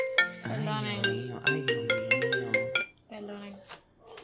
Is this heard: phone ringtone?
yes